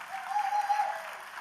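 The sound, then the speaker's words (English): A crowd claps steadily for a moment for a doctor who has just spoken, a dense wash of many hands applauding together at moderate volume, without any voices on top. “Give it up for the, the only”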